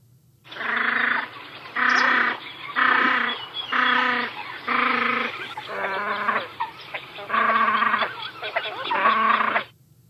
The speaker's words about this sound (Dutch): Dit is de baltsende vuut. Want vanaf februari, maart eh, gaan ze weer eh, het hof maken. Fruikjes het hof maken. En dat doen ze op een hele bijzondere manier.